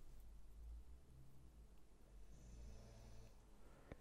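Faint, low snoring from a female dog, a couple of soft rumbling breaths over a quiet background hum, with a brief sharp click near the end. No one speaks.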